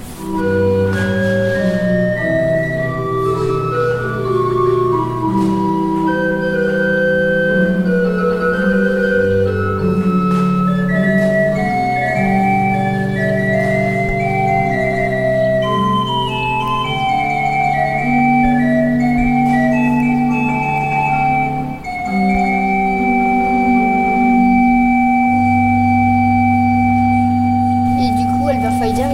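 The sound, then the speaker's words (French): A church pipe organ with 27 stops on two manuals plays a slow, sustained polyphonic passage, with long held bass notes beneath shifting chords and higher lines, loud and steady throughout with no talking. “Notre-Dame de Paris, c'est le plus grand orgue de France.”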